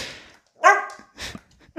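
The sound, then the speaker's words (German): A dog gives a couple of short, sharp barks with a brief pause between them, preceded by a soft snuffling breath, while nudging its owner because it wants to eat; no one speaks. “Jetzt sitzt der Hund übrigens gerade neben mir und er äh, guckt mich an und stupst mich an, weil er essen möchte”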